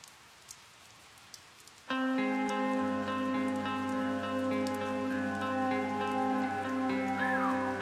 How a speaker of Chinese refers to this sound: 像像雨声这样的设计是你们自己想的，还是制作人那边他的一些构思在里边？ 这个想法是我们自己的。